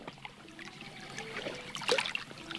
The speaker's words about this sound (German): Das Plätschern zum Beispiel, das Auf und Ab, das sich so schön im Hoch und Runter, hoher und tiefer Noten darstellen lässt.